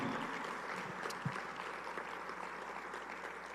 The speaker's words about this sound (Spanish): Por favor, dale un aplauso al Señor esta tarde.